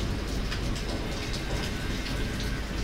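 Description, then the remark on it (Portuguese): Heavy storm rain pours steadily down the window glass of a twentieth-floor room, a dense, continuous hiss with scattered sharper droplet taps, fairly loud, with no voices. “Coisa lá fora, disse apontando para o lugar onde a besta ainda estava havia mais nada lá, só o temporal escorrendo pelo vidro.”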